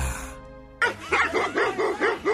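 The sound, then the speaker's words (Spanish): A female dog barks rapidly, about six sharp, high-pitched yaps in a steady quick rhythm, loud and without talk, coming right after a fading sustained ringing tone. “Maté a mi perra.”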